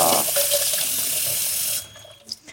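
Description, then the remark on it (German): Tap water runs steadily into a sink with a bright, hissing rush for nearly two seconds, then cuts off, leaving a few faint drips and clinks, as boiled eggs are quenched with a little water. “abschrecken, ein bisschen mit Wasser.”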